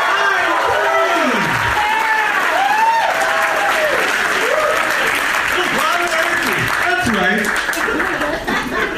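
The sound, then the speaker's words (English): A live audience applauds steadily and loudly for several seconds, dense clapping mixed with rising and falling whoops and cheers from many voices, continuing without a break. “you know what it is, Zach? It's the crowd.”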